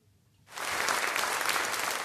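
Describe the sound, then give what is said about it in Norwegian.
After a half-second of near silence, loud, dense applause from a large crowd bursts in and continues steadily, a thick wash of many hands clapping together, as at a standing ovation. “Stående applaus på så å si alle konserter og teaterframsyninger er en uting.”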